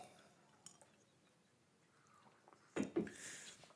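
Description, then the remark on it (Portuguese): Someone drinks water from a glass: a faint clink early on, then a couple of louder wet sips or gulps near the end, followed by a soft breathy hiss. “Deixa eu tomar aqui meus. Carocinho d'água.”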